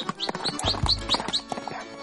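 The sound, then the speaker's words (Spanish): Horse hooves clip-clop in a steady, even rhythm for a couple of seconds, while small birds chirp repeatedly in the background. “Ladrón de ricos, héroe de pobres, siempre montado a un caballo que para sus perseguidores tenía el color del polvo que dejaba atrás.”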